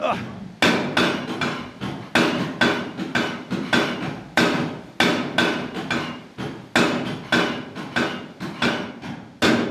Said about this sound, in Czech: Tak slyšíte pravý nefalšovaný hamr, přesně řečeno takzvanou kobylu, ten největší buchar, který tady na Buškově hamru mají a který vždy vládl každému hamru. Kolik to tak váží, ta hlava? Tahle palice váží 300 kg, jo.